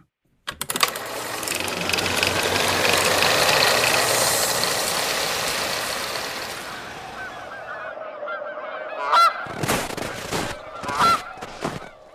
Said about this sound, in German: Schau mal, Horace, die Gänse sind hier geblieben. Oh Gott, das sind wirklich dumme Gänse.